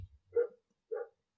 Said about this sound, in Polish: przepraszam za psa, jeżeli go słychać